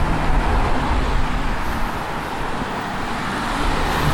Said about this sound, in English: Guess where we are. cruising, cruising cars. Three white Teslas in a row. That's wild.